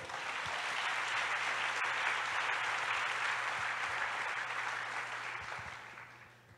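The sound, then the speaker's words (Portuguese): A church audience applauds the Lord in a dense, steady wash of clapping that holds strong for several seconds, then gradually thins and fades toward the end, with no talking over it. “Aplauda o Senhor.”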